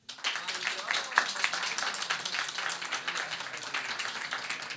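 A crowd claps steadily for about five seconds in congratulation to Imam Zaman, a dense, even patter of many hands, moderately loud with a few sharper individual claps standing out.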